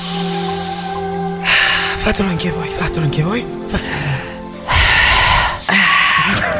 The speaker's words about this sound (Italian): Iniziamo con la respirazione, ispira e respira.